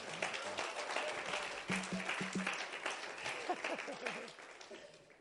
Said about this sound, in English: Your praise team is so good, I've already booked them for my funeral. you know why? I'm dying to hear it one more time. Give the praise team a round of applause. Amen.